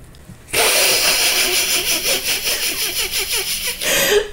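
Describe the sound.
A voice imitates the wheezy, whistly smoker's laugh of Muttley, the cartoon dog: a breathy run of rapid rhythmic hisses that rasps like sawing for about three seconds before stopping abruptly.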